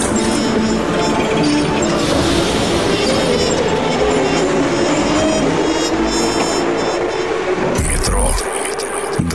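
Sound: subway train moving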